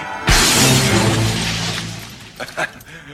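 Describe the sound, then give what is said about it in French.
A large glass French window shatters with a sudden loud crash, followed by a ringing, scattering decay and a couple of small pieces tinkling down near the end. “Je vous avertis, je déduirai le coût de cette porte-fenêtre du salaire minable que vous volez à l'administration.”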